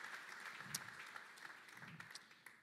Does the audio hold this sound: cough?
no